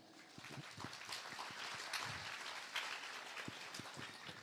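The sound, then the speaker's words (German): Thin, scattered applause from a live audience, a loose patter of individual claps at moderate volume with no cheering, sounding polite and somewhat sparse. “Ich finde, für einen Höflichkeitsapplaus war der noch sehr unhöflich.”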